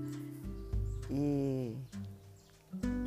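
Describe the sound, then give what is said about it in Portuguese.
A rooster crows once, a drawn-out rising and falling call of about a second, over a steady low background hum, at New Year while it is not yet dawn. “Percebi que há um galo cantando aqui no finalzinho”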